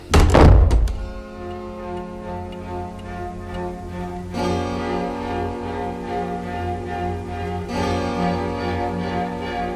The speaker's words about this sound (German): Etwas lauter als üblich ließ er die Tür hinter sich ins Schloss fallen.